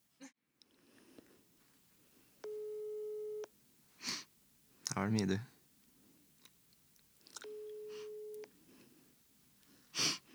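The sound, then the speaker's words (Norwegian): Two long, steady electronic ringback tones, each about two seconds, sound several seconds apart as a phone call to a mother is placed on speakerphone, punctuated by chewing, clicks and handling noises, with a brief spoken remark. “Altså må du ha på høyttaler, da. Ja, du må ha på høyttaler. Jeg får ringe mamma, da.”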